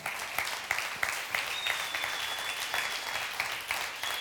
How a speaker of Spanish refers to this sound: Denle un fuerte aplauso a su Dios en el día de hoy.